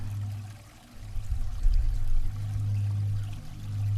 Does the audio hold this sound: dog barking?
no